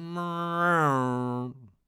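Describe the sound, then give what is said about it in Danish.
A voice imitates an airplane with a steady, buzzy droning hum that swells slightly, then sinks in pitch and cuts off after about a second and a half, fairly loud. “Det er sådan, en flyvemaskine lyder.”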